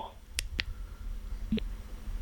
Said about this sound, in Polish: To jest dźwięk na wyciszenie. To jest dźwięk na, e, na to, żeby wyłączyć mikrofon. Dwa razy naciskamy.